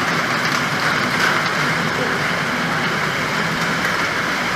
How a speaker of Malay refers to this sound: Alright, sekarang kita orang kat dalam Memang Land, hujan lebat, tergandas. Masuk dalam tempat ni. Oh, betul. Duduk dah. Hujan lebat.